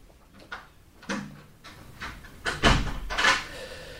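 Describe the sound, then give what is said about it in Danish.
Heavy thuds of a person sitting back and slamming their legs up onto a wooden table, with a softer knock first and then a louder bang amid shuffling and scraping. Nobody speaks. “Så sætter jeg mig bare tilbage og øh, smækker benene op på bordet.”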